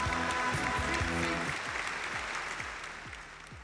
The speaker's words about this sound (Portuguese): Palmas, gente.